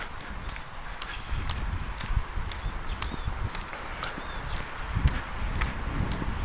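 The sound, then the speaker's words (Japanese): Steady footsteps of a person on a morning walk in a neighbourhood near home, an even rhythm of soft crunching steps over a low rumble of wind, with faint high chirps now and then in the background. “外を歩きながら雑談”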